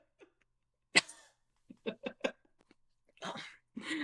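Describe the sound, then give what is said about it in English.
A person lets out a series of dry, hacking coughs that sound like a cat bringing up a hairball: a sharp first burst, quick choppy hacks, then two raspier heaves, fairly loud. “Why do you cough like a cat?”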